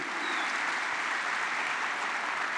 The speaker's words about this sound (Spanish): Dale fuerte el aplauso a Dios si tú quieres ese futuro.